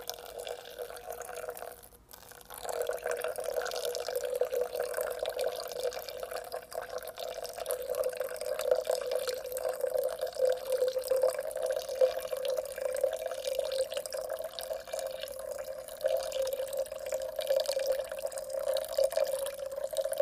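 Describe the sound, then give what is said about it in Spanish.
The rest of the water is poured in a steady, circular, constant stream for about twenty seconds after a brief pause, an even trickling splash with no talking. “va a vertir el resto del agua.”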